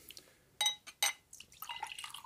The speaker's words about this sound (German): Darf ich dir noch was einschenken? Bitte gerne.